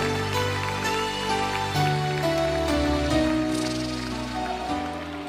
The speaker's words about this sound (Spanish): No te estoy oyendo, no te estoy oyendo. Si el aplauso para Dios, dáselo bueno.